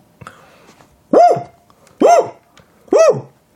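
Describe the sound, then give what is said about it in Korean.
A voice imitates a water deer's barking call by shouting 'woo': three loud, harsh, rising-and-falling yelps spaced about a second apart, with faint noise between them. “우! 우! 우! 고라니 소리입니다.”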